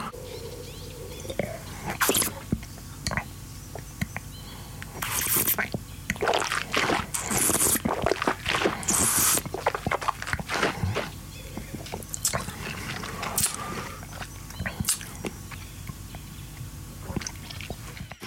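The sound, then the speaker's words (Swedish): Wet slurping and sipping of wine from a glass during a wine tasting, with small liquid splashes and clinks, scattered irregularly over several seconds, with occasional quiet murmurs from people. “Ska vi ta och sörpla lite?”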